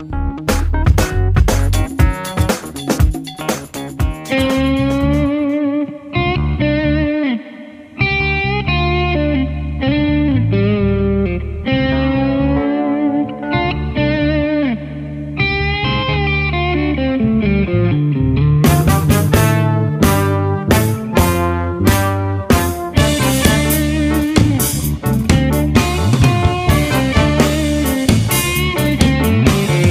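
A full band plays loudly and continuously, with distorted electric guitar and steady bass; the drums hit harder and the sound grows denser partway through. No one speaks.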